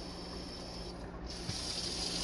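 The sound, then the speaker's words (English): A faucet runs cold water steadily for rinsing fruit, a broad hissing rush of water pouring without pause, fairly quiet, with a slight shift in tone partway through as the flow changes. “Now switch it to the cold water.”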